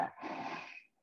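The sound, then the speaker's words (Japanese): A single rough, rasping burst of renovation noise from next door, sounding much like a loud snore, lasting under a second before cutting off, with no one talking. “なんかね、いびきみたいなのが聞こえる。”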